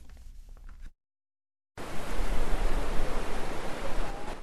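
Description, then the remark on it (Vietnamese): Surf rolls onto the Mân Thái fishing-boat beach in Sơn Trà district, Da Nang, Vietnam, early on the morning of the third day of Tết, in a steady, loud, hissing roar that fills the last few seconds, after a softer rustling open and a brief silence, as fishermen haul nets ashore. No voices are heard. “Từ sáng sớm mùng 3 Tết kỷ hợi, không khí tại bãi thuyền Mân Thái, quận Sơn Trà, thành phố Đà Nẵng khá nhộn nhịp.”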